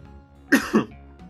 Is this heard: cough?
yes